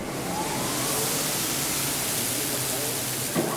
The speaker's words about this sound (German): Was klingt wie Bratfett, ist geschmolzenes Eisen-Stahl-Gemisch, das in eine Form fließt. Weißgelbe Funken spritzen, es riecht nach heißem Metall. Wir haben ungefähr eine Gießtemperatur von 1340 Grad. So, Pi mal Daumen, plus minus 10, 20 Grad.